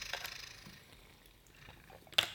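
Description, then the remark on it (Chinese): A person pours and sips a drink of water, mostly soft, airy liquid noise with a few brief splashing bursts and a sharp clink near the end; no one speaks. “我再来喝一点水啊。”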